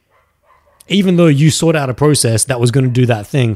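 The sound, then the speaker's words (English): A dog barks in the background while a man talks steadily in the foreground, the barking mixed underneath his voice rather than standing out on its own. “By the way, guys, um, I do apologize for that dog if it's really loud.”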